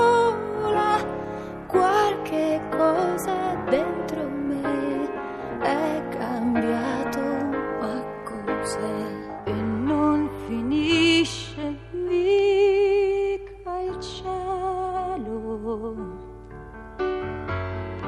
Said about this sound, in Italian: Eh, niente, cosa si può dire su una canzone? Se vi piace, ascoltate.